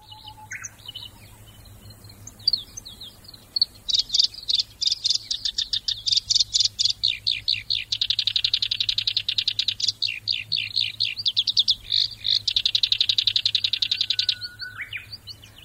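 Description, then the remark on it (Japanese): A black-browed reed warbler sings a fast, thin, high-pitched song of rapid repeated notes and buzzy trills, continuing for over ten seconds with no voices over it. “もしも小ヨしキりならこのか細い早口のさえずりで「大丈夫だよそのうち見つかるよ」と優しくうずらを慰めているのかもしれません。”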